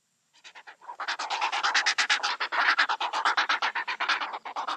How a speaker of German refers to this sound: Ja, das sind Jungvögel des Reihers, des Graureis. Also mich erinnert es total an Australien auch.